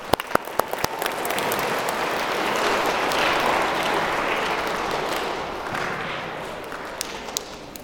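A crowd breaks into steady applause for a coach, dense clapping that swells for several seconds and then thins out, with a few sharp individual claps standing out at the start and end.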